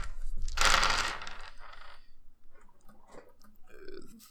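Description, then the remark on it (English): A six-sided die is tossed onto a table for a swift check, striking with a sharp clatter, then rattling and tapping a few more times softly as it settles, landing on three. No one speaks. “Okay, roll a swift check.”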